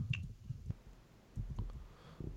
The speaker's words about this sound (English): Oh my god. Why is my keyboard not even working? That's not good.